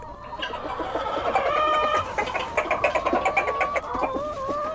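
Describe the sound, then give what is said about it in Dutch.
A dense chorus of broiler chickens clucking and chattering together inside a poultry house on a broiler and arable farm, many birds overlapping in busy, continuous calls with no one speaking. “is half zes, kwart voor zes begin ik aan mijn ronde door de kuikens.”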